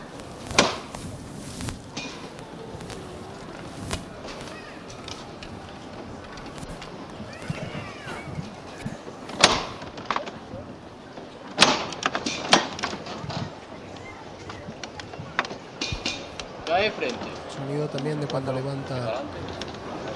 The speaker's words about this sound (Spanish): paso en silencio, cómo se nota ese crujir de la, de la parihuela.